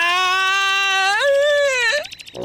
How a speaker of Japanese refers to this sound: 隣の家に住む男の子が泣きながらやってきました